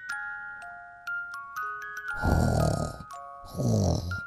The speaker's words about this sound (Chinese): 从远处传来了呼噜声，这是谁的呼噜声呢？